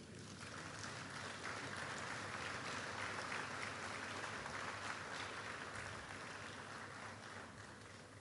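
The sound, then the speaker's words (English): An audience claps steadily for a couple for several seconds, a dense, even wash of many hands that holds at a constant level with no voices rising above it. “Clap for them.”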